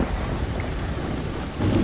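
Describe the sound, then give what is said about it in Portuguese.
Steady heavy rain pours down during a great storm with strengthening wind, while a low rumble of thunder rolls underneath, swelling louder near the end. No voices, just the storm. “O vento começou a soprar cada vez mais forte e levantou-se um grande temporal. As nuvens negras taparam as estrelas, começou a trovejar e sucederam-se os relâmpagos uns atrás dos outros.”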